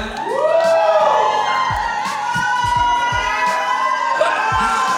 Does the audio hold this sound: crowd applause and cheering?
yes